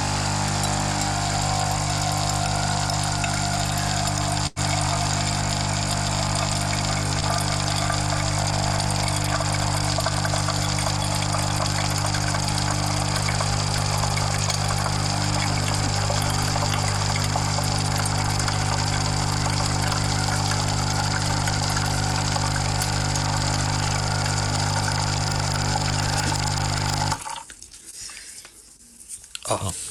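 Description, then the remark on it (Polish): A capsule coffee machine, after its middle button is pressed following a crema coffee, pumps water to rinse its nozzles with a loud, steady, buzzing whir and rushing flow that runs nearly half a minute, then cuts off abruptly into near silence. “Chwilkę czekamy, potem ją dajemy na dół i naciskamy środkowy przycisk, y, w naszym przypadku, bo robiliśmy kawę krema i on sobie ją wodą przeczyści sobie po prostu te dysze w tym momencie jest półlitrowy, także może lecieć woda spokojnie.”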